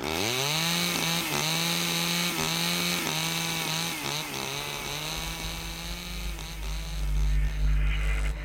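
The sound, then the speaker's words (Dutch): A chainsaw roars steadily, its engine droning with slight rises and dips as it bites into a tree being cut down, ending in a deeper rumbling thud like the tree giving way. “We halen de boom weg. We hebben de vergunning gekregen. Annabel, dit heeft toch geen enkele zin? Dit is... Zagen alsjeblieft die boom.”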